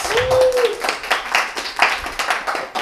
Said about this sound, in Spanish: pero quería pedirles, antes de que sigamos con nuestro invitado, un aplauso, por favor. Gracias.